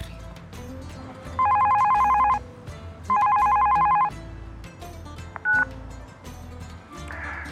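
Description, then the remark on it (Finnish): A phone call to a thesis supervisor's line rings twice in long buzzing bursts separated by a short pause, followed by a brief electronic beep, all over a steady low background rumble. “Hei, soitit väitöskirjaohjaajalle.”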